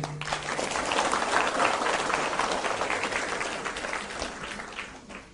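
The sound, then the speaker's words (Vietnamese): An audience applauds to welcome a Buddhist dharma assembly, in a dense, steady wash of clapping that swells briefly and then gradually tapers off over about five seconds, with no voices heard. “xin đề nghị tất cả đón mừng pháp hội bằng một tràng pháo tay”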